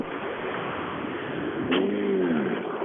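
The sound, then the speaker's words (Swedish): A car engine revs up and eases back down in one smooth swell over steady, rushing road noise while driving on a slippery winter road, with a brief click just before the rev; no one speaks. “Det blir racing nu. Vi får ta det försiktigt.”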